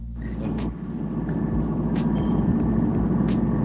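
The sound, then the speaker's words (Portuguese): A washing machine runs steadily, a loud, continuous low mechanical rumble with faint rhythmic clicks and swishes recurring throughout, and no voices. “Parece é uma máquina de lavar. É uma máquina de lavar aí.”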